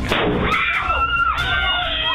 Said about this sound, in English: The family under siege by fireworks. As they sat on their porch, who would do such a thing?